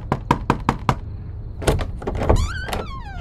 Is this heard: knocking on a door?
yes